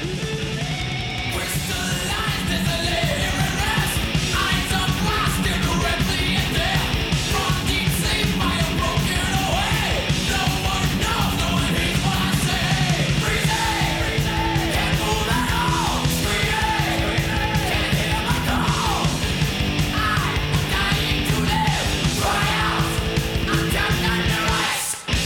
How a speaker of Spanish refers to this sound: volvemos un poco a la velocidad, al sonido clásico característico de aquel primer metal